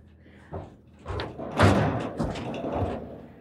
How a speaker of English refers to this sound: I can reach over, shut the door, and then go in and tie the horse after she's been secured.